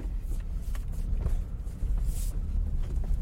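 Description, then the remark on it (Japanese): Steady low rumble of a car cabin while driving to the post office in the morning, engine and road noise droning continuously, with faint higher ticks and a brief airy swell partway through; no one speaks. “朝から郵便局へ出かける予定があったので車を運転しながら雑談収録しました”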